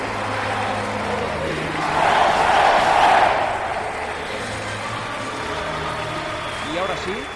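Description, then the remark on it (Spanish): A large crowd gives a farewell ovation, applauding and cheering as a car door closes, swelling loudly around the second and third seconds before settling into a steady roar, with a low engine hum underneath. “se cierra la puerta del coche y esta es la última ovación del mundo.”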